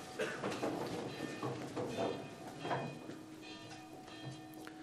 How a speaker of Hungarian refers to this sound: kérem, szólaltassa meg a harangokat.